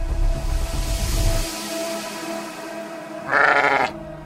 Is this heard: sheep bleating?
yes